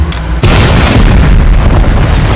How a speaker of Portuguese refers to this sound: Tiraram o som, só de... tiraram a trilha sonora, só deixaram o barulho da porrada, só as porradas comendo, solto, foi muito bom.